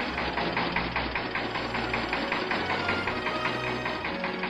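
A tractor engine chugs steadily at idle, a low rumbling drone with a fast, even knocking pulse that continues without change throughout, with no voices.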